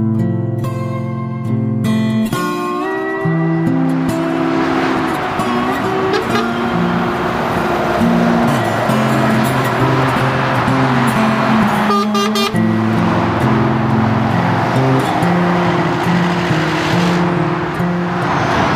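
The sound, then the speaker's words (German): Lorries honk again and again on a motorway below a bridge, where someone stands waving at them, loud sustained low-pitched horn blasts layered over the steady roar of heavy traffic, with no voices. “Wir stehen jetzt auf der Brücke, die über die Autobahn geht. Und wenn ihr euch wundert, warum hier ständig die LKWs hupen”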